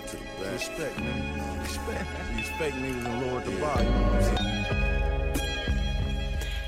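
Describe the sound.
A hip-hop track plays steadily, with a rapping voice riding over a deep, sustained bassline and layered melodic samples, fairly loud and close throughout.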